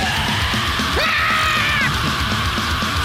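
A loud, dense wall of distorted death metal with pounding low drums, and a harsh screamed vocal cutting through for about a second midway before the heavy music churns on.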